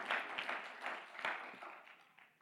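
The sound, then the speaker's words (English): A crowd claps together in a loose, steady rhythm, a wash of many hands, gradually fading softer toward the end, during a Pentecostal church worship service. “Oh, clap your hands unto the Lord tonight.”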